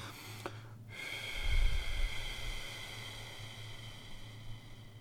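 A slow, steady exhale blown through pursed lips, as if through a straw, as a breathing technique to bring the pulse down: a soft airy hiss with a faint whistling edge that lasts several seconds, with no talking.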